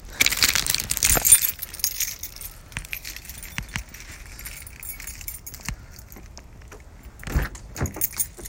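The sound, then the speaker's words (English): Metal keys jangle in a bright, shaky burst, then scattered clinks follow with another short rattle near the end, over a low rumble like a car interior. “keys, I got my wallet, I got my phone, got my gear.”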